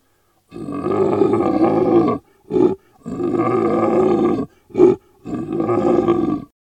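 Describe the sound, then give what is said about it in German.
A person's voice imitates a lion roar: three long, loud, rumbling roars, each followed by a short grunted breath, with no speech. “Also ich meine, wenn Löwen so brüllen, kann das ja viel bedeuten.”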